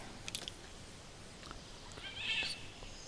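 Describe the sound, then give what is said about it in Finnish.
A golden oriole gives a few brief, faint whistled notes, then a harsh rasping call, all from the same bird, outdoors over a soft background hiss. “Se on se kuhakeittäjä, kuhankeittäjä. Sellainen vihelys ja tällaista kähinääkin sitten vielä päälle.”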